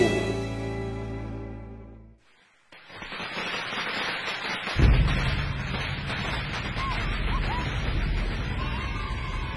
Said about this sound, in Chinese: 鞭炮响，羊年到